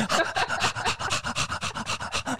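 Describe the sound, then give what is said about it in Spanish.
A dog approaches with rapid, steady scratching, a dry rasping stroke repeated many times in a quick even rhythm, fairly loud, with no voices. “Ahí está el perrito, se acerca.”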